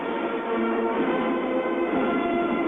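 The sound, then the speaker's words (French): A heavy, continuous grinding rumble as France's first nuclear submarine slides down its launch slipway into the water, holding steady and loud for a few seconds with no voices over it. “Le sous-marin glisse sur son verso.”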